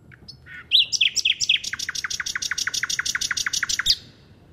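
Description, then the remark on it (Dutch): A songbird sings a rapid, elaborate phrase: a few varied opening notes, then a long, fast series of sharp, descending trilled notes repeated evenly, loud, with faint traffic rumble beneath. “Vocale krachtpatserij. Ja, spierballenrollerij. Ja, weinig ziel.”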